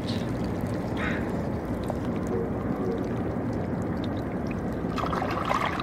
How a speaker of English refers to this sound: The tiny clicking sounds that you hear are the meeting of the water and the barnacles.